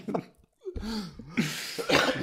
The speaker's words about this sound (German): Entschuldigung. Ja, die so viel Husten da.